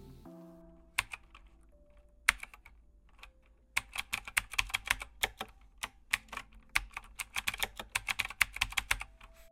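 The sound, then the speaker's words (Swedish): Rapid clicking of someone typing on a computer keyboard, with a few scattered keystrokes at first and then a steady, busy run of taps, with no voices. “Den beteendemässiga biometriska identifikationen vi får via tangentbordet, känt som knapptrycksdynamik eller på engelska keystroke dynamics, blir förstås bara bättre över tid.”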